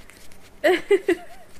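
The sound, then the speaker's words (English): Three crunchy bites into frozen Yakult, quick and uneven, followed by a faint murmur of mouth noise as the chewing tapers off. “are you eating? Yeah. Yakult, frozen Yakult”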